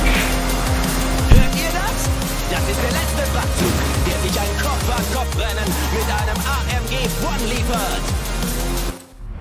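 A video game race car roars at high speed, its engine pitch sweeping up and down through gear changes, with a brief squeal of tires, loud and continuous until it cuts off abruptly.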